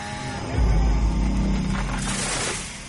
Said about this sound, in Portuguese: Ah, e, e, esse ruído? Que, esse ruído que ouço? O que é? Uma motosserra